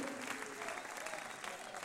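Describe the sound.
An audience claps steadily together in applause to the Lord, a dense, continuous patter of applause with a faint murmur of voices underneath.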